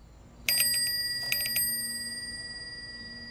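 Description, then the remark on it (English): A bicycle bell on a powder blue bike rings out in two quick bursts at an intersection of two alleys in Philadelphia, bright metallic tones that linger and slowly fade over faint outdoor background noise. “The girl who rides the powder blue bike looks like Pippi Longstocking.”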